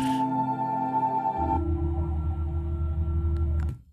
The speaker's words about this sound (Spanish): Los científicos logran, lograron grabar su sonido. Este es el sonido de los anillos del satélite de Júpiter.